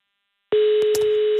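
After a brief silence, a telephone ringing tone starts on an outgoing radio call to a listener on Drejø: a steady, fairly loud single-pitched tone that continues to the end, with a few faint clicks over it and no talking.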